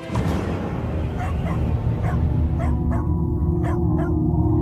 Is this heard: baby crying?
no